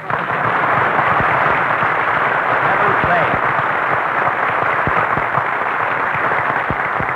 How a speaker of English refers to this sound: Never mind, Jack Benny, applause.